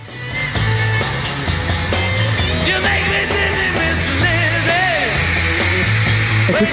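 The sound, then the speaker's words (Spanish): A live album recording with high-pitched screaming from a packed crowd of girls running over the band throughout the whole record. The shrieks are loud, dense and wavering, layered above steady bass notes. “Lleno de gente. No, no, no, no. No paran de gritar. Todo el disco no paran de gritar.”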